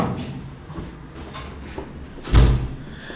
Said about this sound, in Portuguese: Peraí, deixa eu fechar ali a porta que tava tá ventando aqui.